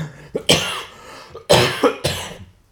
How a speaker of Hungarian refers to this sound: Ah, a köhögéshez.